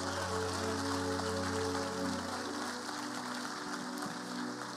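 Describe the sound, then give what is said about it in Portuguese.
An audience applauds in a steady, dense wash of clapping that holds for several seconds, with sustained keyboard chords ringing underneath and no voices. “Pode aplaudir, irmãos.”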